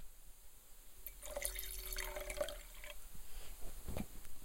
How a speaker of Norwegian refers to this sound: Nå skal vi ta helle litt i, i glasset her.